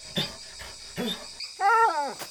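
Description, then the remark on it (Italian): A female puppy named Mia, holding a ball in her mouth, growls playfully in a few short, muffled bursts, then lets out a longer, higher whining note, with no one talking. “Ma che cos'hai in bocca? La nostra pallina! Ce l'hai riportata! Brava, cucciola!”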